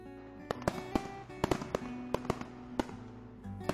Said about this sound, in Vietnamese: bố ơi pháo hoa kìa